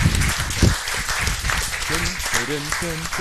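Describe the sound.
A crowd applauds steadily during an audience question round, a dense wash of clapping, with some voices and chatter audible through the applause toward the end.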